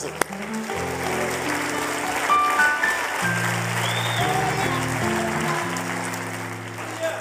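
A crowd applauds steadily for several seconds, a dense wash of clapping that stays loud throughout, with low sustained musical tones humming beneath it.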